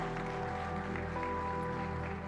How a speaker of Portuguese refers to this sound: E aplauda o Senhor Jesus por isso.